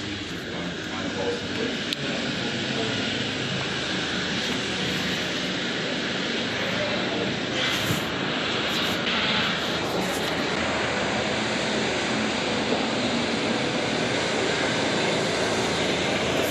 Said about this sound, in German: Die Hubschrauber kommen.